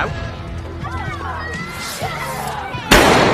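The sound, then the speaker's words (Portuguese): Voices murmur in the background, then near the end a sudden, loud gunshot-like bang bursts out, followed by a rush of crackling noise, as if fired outside. “Se eu tô em casa, é tiros.”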